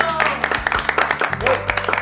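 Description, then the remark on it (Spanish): An audience applauds with a steady burst of clapping that fills the whole moment, fairly loud, with a low sustained tone and some voices underneath. “Aplauso a todos ustedes.”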